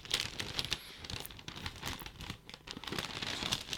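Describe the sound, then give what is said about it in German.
Continuous crinkling and rustling of gift wrapping paper with sharp tearing bursts as a present containing a book is unwrapped, loud and busy throughout, no voices. “Ah, jetzt muss ich doch mal ein bisschen reißen. Okay, ich habe es noch nicht gesehen. Ich werde jetzt... Das ist ja viel Papier.”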